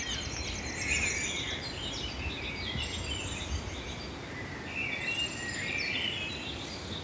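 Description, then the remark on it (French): A thrush sings two bursts of varied, fluty phrases in Paris, with a brief pause between them, over a steady low outdoor rumble. No one speaks. “Voilà, ma grive vient de partir.”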